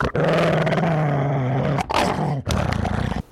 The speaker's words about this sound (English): Growl is the low guttural sound made by a hostile animal. Normally, dogs we see as growling if they don't like you